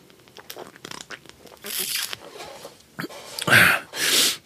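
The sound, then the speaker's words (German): A beer bottle being opened in an office: some fiddling and crinkly handling, then short, loud bursts of hissing release near the end. No one talks. “Weil jetzt nämlich das Bierchen erstmal gekappt wird.”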